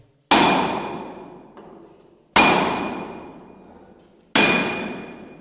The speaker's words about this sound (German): In kleinen Schmieden rund um den Hof wurden die Silberrohlinge hergestellt. Die Münzpräger machten diese dann mit nur einem Hammerschlag zur Münze.